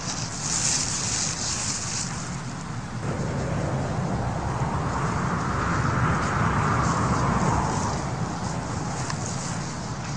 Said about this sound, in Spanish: ¿Oyes? Las hojas y el viento están de acuerdo conmigo.